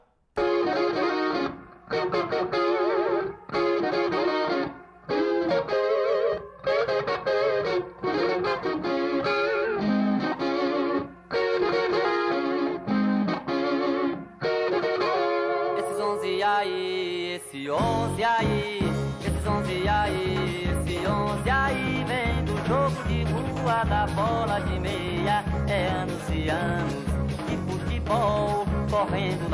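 A Brazilian pop song plays, starting with choppy, stop-start phrases of guitar and band, then swelling midway into a denser, louder full-band section with bright, shimmering highs and a steady beat.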